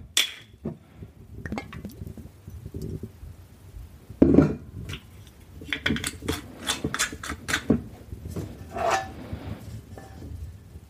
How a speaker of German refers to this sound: So, und dann schnappe ich mir meine Pfanne stelle sie auf den Herd und mache die erstmal heiß. Kommt noch ein bisschen Öl hinzu. Ich nehme jetzt in dem Fall ein bisschen Olivenöl.